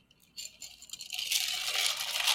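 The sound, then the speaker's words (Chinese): Ice cubes rattling in a drink: a few scattered clicks at first, then a dense, continuous high-pitched rattle and scrape that grows louder and holds steady to the end, with no talking. “有那个冰块最多那个声音， 对啊，很夸张哎。”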